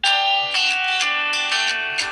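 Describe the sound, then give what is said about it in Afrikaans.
A grandmother's mobile phone rings with an incoming call, a loud, bright electronic melody of repeating tones pulsing every half second or so, with no voices over it. “Dis daai ouma se foon, ja, ouma se celebrity hoor.”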